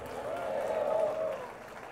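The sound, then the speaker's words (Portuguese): An audience at a sermon claps for God together in a dense, steady patter for over a second, with a faint murmur of voices mixed in, before the applause fades away. “Se você quer, dê um aplauso a ele e diga: Eu creio!”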